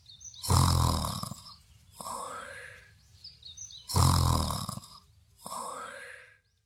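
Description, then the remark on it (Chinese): Loud, exaggerated snoring of a big-mouthed monster lying asleep on a pile of books, with two full breath cycles: a deep, rattling rumble on each inhale, then a softer, airy wheeze on the exhale, repeating in a slow, steady rhythm with no talking. “怪兽爷爷的朋友大嘴巴怪兽曾经专门数过一次，可是数了三天三夜都没有数完，最后累得趴在书堆里打起了呼噜。”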